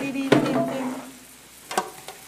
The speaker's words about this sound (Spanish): estoy picando la cebolla.